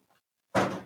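The small cardboard second-to-last door of a Niederegger Lübeck advent calendar is pushed open: one brief papery rip lasting under half a second, heard after near silence.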